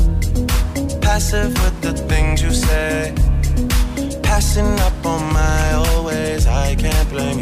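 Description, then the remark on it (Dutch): A smooth R&B track plays loudly and continuously, a male voice singing over a steady, mellow beat with sustained synth chords throughout. “…. Die klinkt zo.”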